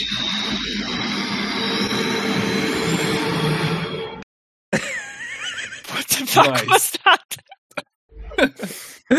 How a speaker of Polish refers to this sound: To był dźwięk wypuszczonego powietrza przez doktora.